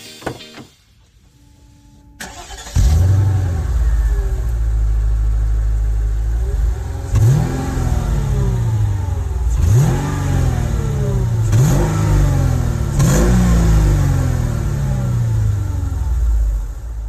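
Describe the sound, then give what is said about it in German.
A Mechatronik M-Coupé car engine starts and settles into a steady idle, then revs sharply four times in a row, each rise in pitch falling back quickly. Loud, no talking. “Ja, Mechatronik M-Coupé.”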